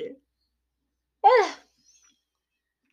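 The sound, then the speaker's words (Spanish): A single breathy yawn into the microphone from a sleepy person, with a voiced, wavering pitch, about half a second long, set in otherwise quiet surroundings. “Disculpen si bostezo en, en, el micrófono, pero es que tengo sueño, amigos.”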